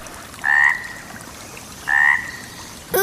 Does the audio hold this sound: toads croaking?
yes